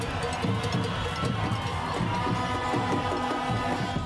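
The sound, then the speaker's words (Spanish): A large street crowd in Bogotá, Colombia, celebrating the second-round election results in the rain, with a steady wash of many voices cheering and chanting together, loud and continuous throughout with no pauses. “Al conocerse los resultados de la segunda vuelta electoral, las calles de Bogotá se convirtieron en un carnaval que no detuvo la lluvia.”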